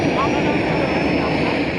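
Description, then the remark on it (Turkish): A steady, loud roar of the engines of a giant Turkish Armed Forces cargo aircraft, converted into a fully equipped hospital, drones on without a break, constant, with a broad rushing hiss over a deep rumble. “Tam teşekküllü hastaneye dönüştürülen Türk Silahlı Kuvvetleri'ne ait dev kargo uçağı.”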